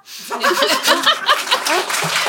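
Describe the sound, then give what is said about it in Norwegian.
A short burst of crowd applause with cheering and laughter mixed in, loud, lasting a couple of seconds as a dense wash of clapping. “Og der er det passende med en applausjente.”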